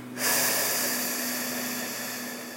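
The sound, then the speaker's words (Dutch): A long, forceful breath blown out through the mouth after breathing in through the nose, as part of a seated breathing exercise, breathy, starting abruptly and holding steady for over two seconds before slowly easing off. No talking. “En door mijn mond heel hard uit.”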